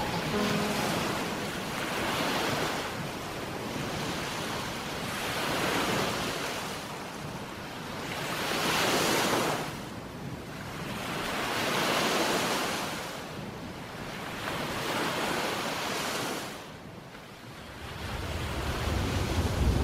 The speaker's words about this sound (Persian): صدای دریا دیوونم میکنه